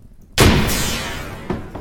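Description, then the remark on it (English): A heavy bang on a door rings out loud, its boom lingering, then a second, softer knock follows a moment later. No voices. “Oh, someone's at the door.”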